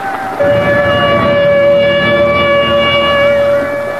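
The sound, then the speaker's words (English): A loud, steady tornado warning siren, sounding as a tornado is sighted moving east towards Dallas, holds a sustained wailing tone with rich harmonics, rising in at the start and droning on without break for several seconds. No one speaks. “Tornado sighted, moving east towards Dallas. The warning goes out.”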